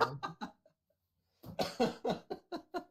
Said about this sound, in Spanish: tos, tosiste acá